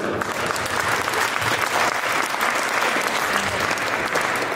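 Steady audience applause fills the whole stretch, a dense wash of many hands clapping at an even, loud level with no voices standing out.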